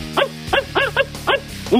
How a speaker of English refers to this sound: Is it time to walk that dog? Woof, woof, woof, woof.